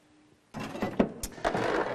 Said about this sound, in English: Here, I have a nail. And when I want to put a nail into my aeroplane, I also need this, which is my hammer. And obviously I hammer the nail into something.